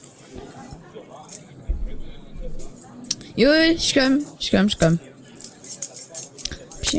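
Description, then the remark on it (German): Keys jangle and clink in short, scattered bursts as someone fetches a key, while a man calls out briefly over the metallic rattling. “du holst mal einen Schlüssel.”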